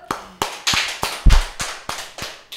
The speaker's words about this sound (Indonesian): oke tepuk tangan lu